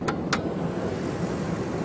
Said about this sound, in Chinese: V 八四七零零，听那个声音非常浑厚啊，完全感觉不到这是一台已经跑了十六万公里、十年的车了啊。